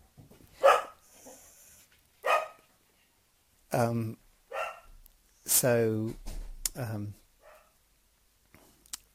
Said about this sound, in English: Sorry about that. I don't know if you got that. That was the dog making an entry.